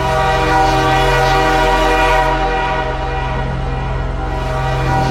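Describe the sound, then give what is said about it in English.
A loud, sustained train whistle howls without a break, its rich, steady tone filling the whole stretch, unwavering, with no voices present. “The howl of a train whistle erupted from the witch's throat shattering the night air.”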